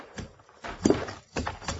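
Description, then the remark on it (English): A horse is walked slowly up to a water trough by a pump, its hooves clopping in a loose, uneven rhythm of a few soft thuds, with no voices. “Dismount and walk your horse up to that trough by the pump.”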